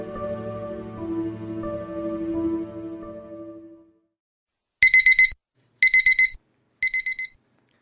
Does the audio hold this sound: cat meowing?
no